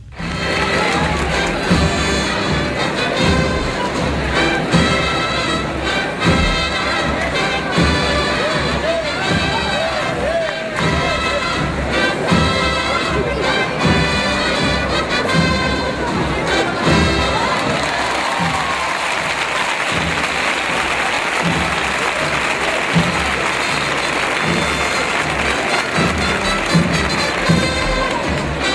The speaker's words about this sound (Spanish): el señor de la sentencia de la Hermandad de la Hiedra de Jerez de la Frontera, en el Maipa, en plena cruz vieja, madrugada de Viernes Santo. Así, de motivo, suena el Viernes Santo madrugá en Canal Sur Radio.